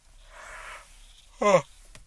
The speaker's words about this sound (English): As I say that, I have a big yawn.